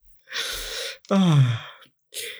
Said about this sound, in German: Das ist nur so ein leichtes Schnarchen. Ja, ah. das ist nur so ein leichtes Schnarchen.